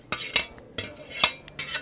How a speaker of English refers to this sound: Next, the apple slices hit the boiling water blanching bath. They only need to boil for about a minute. So now I'm going to drain my apples.